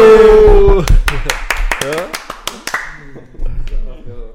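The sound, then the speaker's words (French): A short round of applause welcoming a guest who takes car photos and videos: about a dozen sharp, crisp claps over a couple of seconds, mixed with voices talking. The clapping dies away while the talking continues. “S'il vous plaît, applaudissez pour”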